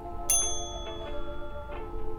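A single bright ding from a front desk service bell in the lobby of the Sunset Rise Inn, its clear metallic tone ringing out and slowly fading over faint background hum.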